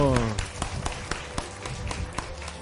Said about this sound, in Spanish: Un aplauso.